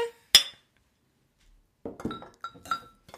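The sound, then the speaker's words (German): Beer glasses clink together in a toast: one sharp ringing clink, a short silence, then a quick flurry of several more knocks and chimes up close. “Prost, Leute. Schönes Prost, Wochenende.”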